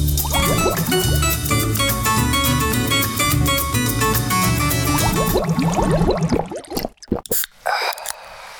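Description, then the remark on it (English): The original Coca-Cola Zero soda pours in a steady stream for several seconds, then breaks into short fizzy splashes and a soft hiss of carbonation at the end. “So this is the sound of the uh, the original as we head to the break.”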